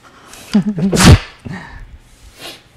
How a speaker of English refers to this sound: I'm gonna sneeze.